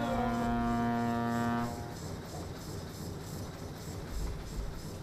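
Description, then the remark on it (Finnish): A single short, loud ship whistle toot sounds in fog at five in the morning near fishing boats, a rich droning blast lasting under two seconds, then cuts off and leaves a steady rumbling background noise. “Minihaha on nyt joutunut lähelle kalastuslaivoja, sillä kello viisi aamulla kuuluu ensimmäinen piipahdus.”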